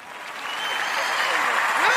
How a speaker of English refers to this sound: Welcome to the tour on the Sister Speak Show, my brother. Everybody, let's give a round of applause for my brother